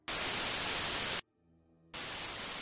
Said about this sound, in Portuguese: Tu escuta o comunicador chiando